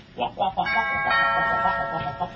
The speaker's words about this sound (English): Jesus, doorbell's going crazy.